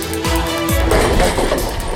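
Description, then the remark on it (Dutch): Glass smashes loudly, two heavy low thuds followed by a burst of crashing and scattered tinkling shards that keep clattering for about a second. “glas, hè?”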